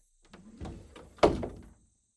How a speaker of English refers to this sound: Every evening, Emily would retreat to her room, shutting the door softly.